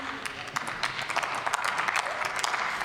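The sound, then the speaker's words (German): Applause from parliament members, with the health policy politicians clapping: a steady patter of many hands, fairly loud and continuous for the whole stretch, with bright, crisp claps rising over a dense wash of noise. “die Gesundheitspolitiker klatschen, das freut mich an der Stelle auch.”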